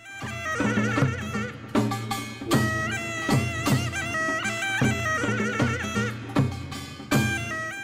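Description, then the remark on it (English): A Korean taepyeongso, a small wooden oboe with a metal horn bell, plays a loud, piercing, reedy melody with sliding, bending notes, backed by sharp percussion hits that strike every second or so. “this is a small wooden oboe and it has a metal horn bell at the end of it”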